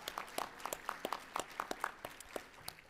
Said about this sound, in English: Uh, but a round of applause for Bill and David and their committees.